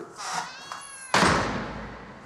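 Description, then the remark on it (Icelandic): A cat meows in drawn-out, wavering cries, then a sudden loud burst of noise cuts in and slowly fades away. “Haldu kæfti, depill!”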